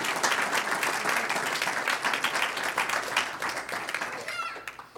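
A crowd applauds in praise of God steadily for about five seconds, a dense wash of many hands clapping at once, holding fairly even before easing slightly toward the end.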